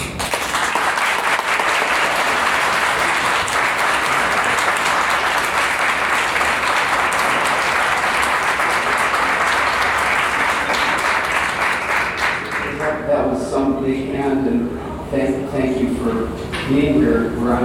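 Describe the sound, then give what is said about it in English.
A large audience bursts into a standing ovation, sustained loud applause in a dense wash of clapping lasting about twelve seconds, which fades as a voice starts speaking. “And uh, as you can see, I'm, I'm giving Adrian a standing ovation myself.”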